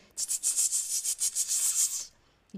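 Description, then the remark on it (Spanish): A voice imitates a cicada with a hissy, high-pitched buzzing that pulses rapidly for about two seconds, fairly loud, then stops; no words are spoken. “La cigarra es como una especie de saltamontes, un insecto pequeñito que mueve las alas y hace...”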